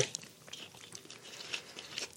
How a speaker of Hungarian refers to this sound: Bocsánat, csak ittam egy kort vizet